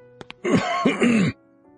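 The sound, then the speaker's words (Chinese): A man deliberately clears his throat in two or three rough, voiced rasps lasting under a second, preceded by a couple of faint clicks, with quiet before and after. “于是他故意清了清嗓子。”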